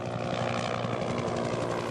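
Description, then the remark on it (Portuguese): A helicopter supporting a police operation in a community in São Gonçalo, Rio de Janeiro metropolitan region, drones steadily overhead, its rotor giving a low, continuous thrum with an even rhythmic chop, loud and unchanging throughout, with no voices. “O veículo blindado e o helicóptero deram apoio à operação.”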